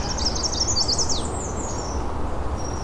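A black-throated blue warbler sings a high, buzzy run of notes that rises toward the end, over a steady background hiss.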